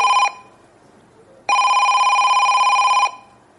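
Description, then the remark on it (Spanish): A mobile phone rings with a bright electronic tone: the tail of one burst, a short pause, then a longer steady ring of about a second and a half, loud, with no talking. “Las madres siempre te llaman en el peor momento, cuando te estás metiendo en una reunión, cuando te vas a duchar, cuando te sientas a cenar, basta que hayas venido al teatro, se te haya olvidado apagar el móvil para que de repente...”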